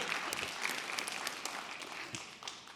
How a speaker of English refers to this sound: Y'all are really good golf clapping tonight.